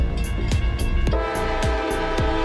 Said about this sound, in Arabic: وفي عام 1944 تم بناء جسر للسكك الحديد يربط بين شواطئ مضيق كيريتش وعبر أول قطار فوق الجسر من محطة القرم متجها إلى منطقة القوقاز